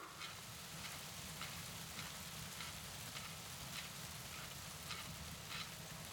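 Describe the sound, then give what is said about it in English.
Steady rain falls continuously, a dense hiss of drops with faint crackling taps scattered throughout, evenly loud with no voices or pauses. “It begins to rain in our darkness.”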